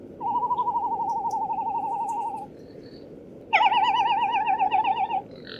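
Two long, quavering calls of a frigatebird, a large seabird with a wingspan of up to 2 metres, each a steady warbling trill lasting about two seconds, separated by a short pause. They are loud, with a faint breathy background.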